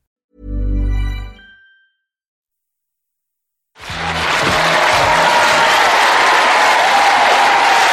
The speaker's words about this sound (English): Hey, local applause, our audience,